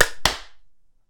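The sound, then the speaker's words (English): A group hand clap on a three-two-one countdown, made to sync a recording, lands as two sharp, loud bursts about a quarter second apart, as if the clappers weren't quite in unison, then rings down quickly into silence. “Are you guys ready to clap?”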